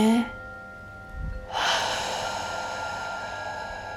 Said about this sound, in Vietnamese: và buông thư ra mình bắt đầu thở hít vào thở ra